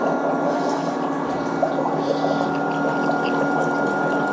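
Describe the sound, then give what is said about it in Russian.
A foot spa runs steadily with a rotating pumice attachment and a foot pressed against it, its motor whirring with a constant hum while water churns and bubbles, unchanging throughout with no voices. “Это пемзочка. И абсолютно то же самое. Прижимаем ногу, насадка вращается.”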